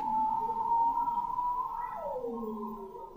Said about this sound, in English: And then there's the bearded seals who are singing almost like sort of like pop singers, you know, they're like it's, it's very um, flighty and uh, full of different ups and downs, and it's really quick.